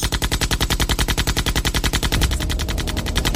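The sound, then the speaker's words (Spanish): Loud, sustained fire from two Thompson submachine guns, fired by men posing as police, sweeping from left to right until the cartridges are emptied: a rapid, even stream of sharp shots for about two seconds, then the volley grows denser and rougher as the firing continues without pause. No voices. “Sin apenas darles tiempo para reaccionar, los falsos policías sacaron dos metralletas Thompson y comenzaron a disparar de izquierda a derecha hasta que vaciaron los cartuchos.”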